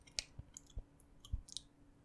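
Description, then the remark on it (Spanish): Wet mouth clicks and smacks of a person's saliva, made to show how a new microphone sounds: a handful of short saliva pops scattered irregularly over two seconds, quiet and intimate in an ASMR style with no talking. “mira cómo se escucha, por ejemplo, ahora que se lleva el, ASMR, los sonidos así. Mira, por ejemplo, mi saliva.”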